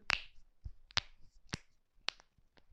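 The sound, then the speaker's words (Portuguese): A wrist joint cracks several times, four sharp, dry pops at irregular intervals with a fainter click between them and quiet pauses, no talking. “Eu não sei se vocês estão a ouvir isto. Isto é o meu pulso.”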